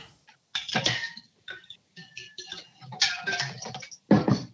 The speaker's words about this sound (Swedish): Nu ska vi se. Nu ska jag ta en sipp här också. jag hällde precis upp en drink jag gjorde igår, den du pratar om.